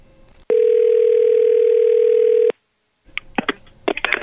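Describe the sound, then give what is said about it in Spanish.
A single steady telephone ringing tone on an outgoing prank call on the Panda Show, placed from a private number, sounds for about two seconds, then a short silence, followed by faint crackly line noise and muffled sounds. “Si te pregunta por qué me marca privado, no sé, pues es mi teléfono.”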